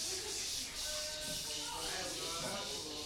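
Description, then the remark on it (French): Several people imitate cicadas together into a microphone for software that automatically creates music from it, producing a steady, dense hissing buzz that holds for the whole stretch with faint overlapping voices underneath. “Donc il faut que vous imitiez les cigales avec ferveur et le logiciel va automatiquement créer une musique qui fait ce que les cigales entendent.”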